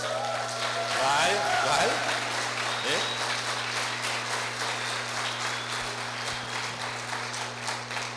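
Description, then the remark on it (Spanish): A crowd breaks into steady applause for people who have come for the first time, dense clapping that swells early and then holds at an even level for several seconds, with a few voices rising faintly through it and a low steady hum underneath. “Denle un aplauso a la gente que ha venido por primera vez.”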